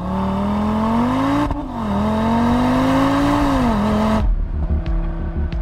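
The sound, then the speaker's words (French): An Audi RS3 sport sedan with all-wheel drive and a five-cylinder engine revs loudly, its rising and falling harmonic growl sustained for about four seconds before cutting to a lower, rumbling idle. “Aujourd'hui, je vais vous parler d'une voiture exceptionnelle qui est aussi la seule à être animée par un moteur à 5 cylindres, donc un nombre impair de cylindres. Et cette voiture, c'est la Audi RS3.”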